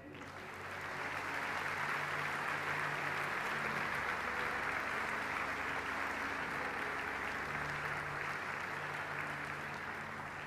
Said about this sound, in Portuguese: Dê um aplauso ao Senhor.